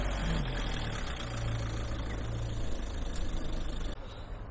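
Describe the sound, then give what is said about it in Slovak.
A BMW car engine rumbles steadily with a deep, continuous low hum, then the sound drops off abruptly near the end as it pulls away. No one speaks. “Ide nám auto preč.”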